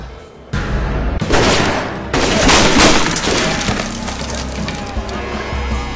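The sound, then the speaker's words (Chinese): A loud burst of rifle gunfire from a prison guard at a sentry post: a few sharp, cracking shots with abrupt onsets, then a sustained noisy, crackling rumble, with no voices. “然而望远镜反射的太阳光不小心照到了岗哨，胡狱警猛然被晃了一眼，抬枪就射。”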